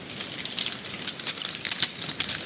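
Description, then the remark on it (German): Crinkly plastic rustling of a bag of chips being handled, a steady stream of bright crackles rising and falling in short bursts for a couple of seconds, with no one talking. “Die Chips sind übrigens lecker. Willst du noch eins?”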